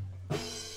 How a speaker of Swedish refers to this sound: Jag står här och vill öppna min öl.